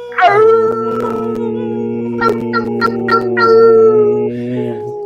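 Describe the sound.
Several people howl together like wolves on a count of three, their long sustained voices overlapping in second and third voices at different pitches, including a deep low one, fairly loud for about five seconds.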